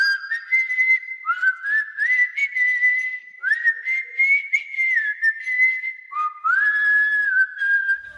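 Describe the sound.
A person whistles a slow, wavering song melody alone, the clear tones sliding up and down between held notes with brief breaths in between, moderately loud.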